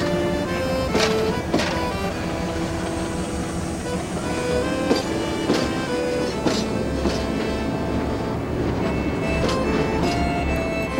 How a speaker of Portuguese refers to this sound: O trem dá um solavanco e parte.